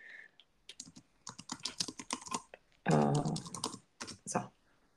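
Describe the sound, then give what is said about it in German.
Rapid clicking of keys on a computer keyboard while typing a message into a WhatsApp chat, fairly loud, in uneven bursts of keystrokes with brief pauses, plus one short louder noise partway through. “Ja, ich, ich schreibe es dem äh, WhatsApp-Chat parallel.”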